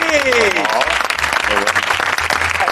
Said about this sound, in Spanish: muy bueno. Un aplauso para Simerini.